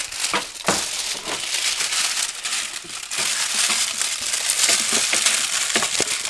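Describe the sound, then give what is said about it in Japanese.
A plastic garbage bag is crinkled and crushed continuously, a loud, dense crackling rustle with sharp, bright snaps scattered throughout and no talking. “こっちだこれゴミ袋今ね有料になったじゃないですか”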